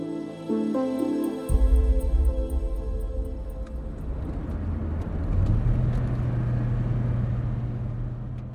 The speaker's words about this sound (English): As we drive out of Al Hol, Fahad stops the car and pulls over.